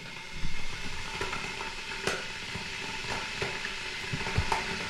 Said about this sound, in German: Das war ja leicht. Ich würde auf den Wasserkocher ja, tippen.